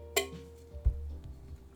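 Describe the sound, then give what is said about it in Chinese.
A pull-tab tin can, like a drink can, holding a canned chili-pepper plant kit filled with soil, being opened: one sharp, bright metallic snap of the pull tab, then a soft, low thud a moment later, with no talking. “罐头辣椒就是很像我们今天喝的这种易开罐嘛，那你就这样把它打开，好，听一下 ASMR”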